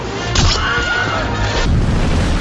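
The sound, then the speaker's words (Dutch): A stock movie scream of a stormtrooper in the first Star Wars film, hit by Luke Skywalker and falling from a platform: a brief wavering yelp that rises and falls, set amid loud booming blasts and crashing action sound effects. “En de eerste keer was in de eerste Star Wars, waarbij dat er een stormtrooper eh, geraakt wordt door Luke Skywalker en die valt van het platformje zo helemaal naar beneden en hoor je dus ook.”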